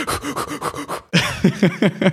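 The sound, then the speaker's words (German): Rapid, exaggerated panting breaths in a quick rhythmic series, loud, with a brief pause midway before another burst of hyperventilating gasps, as people deliberately hyperventilate in a room fitted with a CO2 monitor. “Los, atmet, hyperventiliert.”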